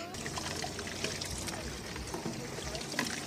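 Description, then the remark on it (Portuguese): Water gushes steadily from a leaking water main, previously under maintenance, in the Carropeia neighbourhood, where residents collect the escaping water; a continuous splashing rush with no pauses, while faint, indistinct voices murmur in the background. “No bairro de Carropeia, os residentes aproveitam da água que escapa desta conduta que antes estava em manutenção.”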